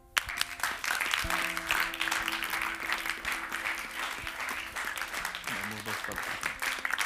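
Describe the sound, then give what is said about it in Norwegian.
A crowd applauds steadily for several seconds, a dense wash of clapping with a few brief musical tones sounding faintly underneath. “Gi meg en applaus til de.”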